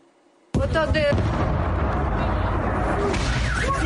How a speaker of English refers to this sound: The strike at Kramatorsk railway station was not only deadly, it was personal. The Russian missile inscribed with the words, for the children.